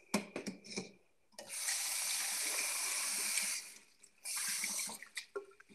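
Water runs from a tap into a drinking glass in two steady bursts, a longer stream then a shorter one, with small clinks and handling noises before and between; fairly loud, no talking.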